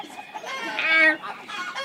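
chicken clucking

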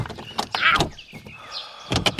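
locked door being tried

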